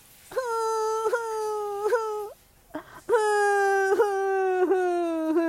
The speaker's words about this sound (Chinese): 小熊加快脚步，哭声越来越清晰。